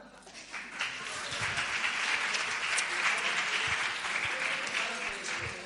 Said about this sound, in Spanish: Ya que están ustedes dispuestos a aplaudir, le voy a pedir otro aplauso para